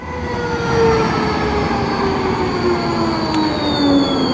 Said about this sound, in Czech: počkám až přijede A, tramvaj.